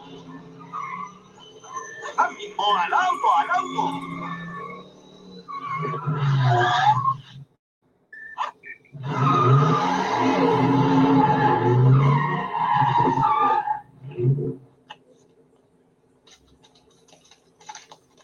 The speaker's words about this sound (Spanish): vehículo llegue a las 88 millas por hora.